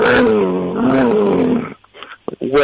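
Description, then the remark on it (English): A voice imitates a dirt bike engine heard way off in the background at the end of a movie, as Jesus rises from the dead and zips out on a dirt bike. A loud, buzzing drone wavers in pitch for almost two seconds, followed by a few quiet breathy sounds. “and it's it's the dirt bike, uh, as Jesus, as he's rising from the dead, he zips out on a dirt bike, and uh, that's the end of the movie.”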